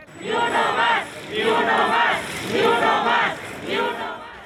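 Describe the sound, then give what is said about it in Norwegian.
A crowd of journalists and other supporters at a protest chants the slogan "not one more" in unison, many voices shouting the same short phrase four times in a steady rhythm, loud and forceful, with each repetition separated by a brief dip. “Journalister og andre støttespillere roper 'ikke en til', men de vet at det vil komme flere drap i ukene og månedene som kommer.”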